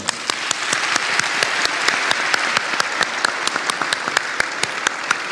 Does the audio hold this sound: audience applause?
yes